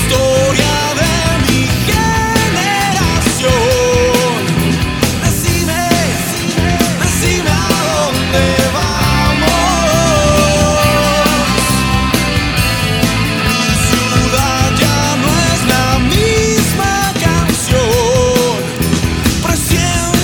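The original 1989 version of a song by a Bogotá rock band: a full rock band plays at a steady, loud level throughout, with driving drums, bass and guitars under a sung melody, filling the whole twenty seconds without a break.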